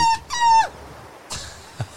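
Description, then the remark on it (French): A voice imitates a gull's cry with two loud, nasal, harmonic squawks in quick succession, followed by a softer breathy noise and a short low thump. “à chaque fois que tu fais la mouette, il a le rire.”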